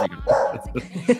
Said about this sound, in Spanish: no te preocupes, solo faltaría que en este no pudieran ladrar los perros.